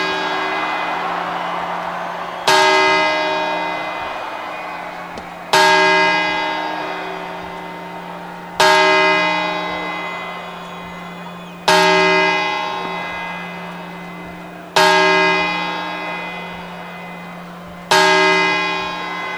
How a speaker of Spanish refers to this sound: ¡Atentos niños! llegan ya las 12 campanadas.